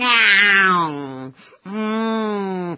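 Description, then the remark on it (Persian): Two long, drawn-out, fairly loud meows from an old cat sitting unhappily, each sliding down in pitch with a mournful, plaintive quality, separated by a brief pause and with no talking. “گربه ناراحت نشسته بود و میو میو میکرد.”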